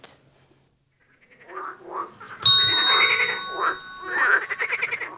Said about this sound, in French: Des grenouilles. Bonne réponse.